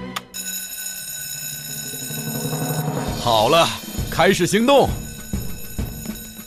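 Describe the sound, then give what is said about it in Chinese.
A fire station alarm bell rings continuously to start a fire drill, a steady, bright metallic clangor throughout, while a voice speaks briefly over it partway through. “哦，太好了，该按响警报了。”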